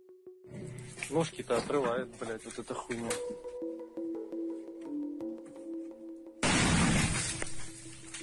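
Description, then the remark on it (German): A loud explosion of a Russian PFM-1 anti-personnel 'butterfly' landmine three metres away, recorded on a phone video, bursts suddenly and harshly after a few seconds of voices and a low steady hum, its blast lasting about a second before stopping abruptly. “So klingt es, wenn eine russische PFM-1-Personenmine in drei Metern Entfernung explodiert.”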